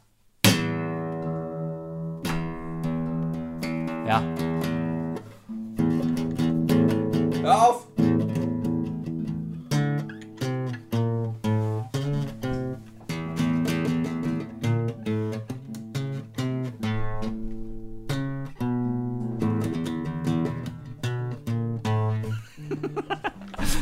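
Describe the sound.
A guitar being tuned: single plucked notes and strummed strings ring out repeatedly, pitches shifting as pegs are adjusted, with brief voices and laughter occasionally heard alongside.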